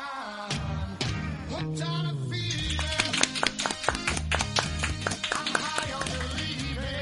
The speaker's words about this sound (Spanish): te he dicho que no aplauda cerca del micro que se nota que somos nosotros. Hazlo así.